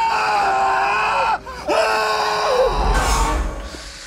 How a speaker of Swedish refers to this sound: Men jag tror eh, klipp på han, den buss, när han sitter på bussen och han skriker bara högst upp.